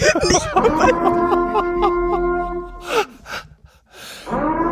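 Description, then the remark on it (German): A loud, steady siren-like horn sound effect, played from a phone, blares for a few seconds with a slight wavering pitch, then cuts off into breathy noise bursts before a voice starts up. “die feuchtfröhliche Podcast-Sirene”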